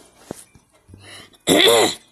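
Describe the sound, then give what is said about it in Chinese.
A single loud, voiced cough, almost a throat-clearing "ahem," lasting about half a second after some faint breathy sounds, with no talking. “然后啊，他突然的咳嗽了一声”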